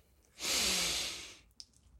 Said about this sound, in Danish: Vi starter med at trække vejret dybt igennem næsen.